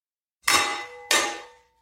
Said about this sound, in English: Lydia grabbed her lost sword and hammered the handle against the stone.